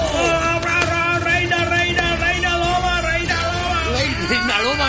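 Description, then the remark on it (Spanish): A live crowd loudly chants "reina loba" in unison, many voices blending into sustained, ringing tones that rise and swell toward the end. “reina loba es el grito cuando cuando cuando hablamos de Juan Gómez Jurado”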